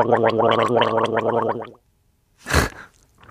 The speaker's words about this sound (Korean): 누가 가글을 하시네요. 점심 식사를 하시고 청결을 유지하시는 중인 것 같습니다.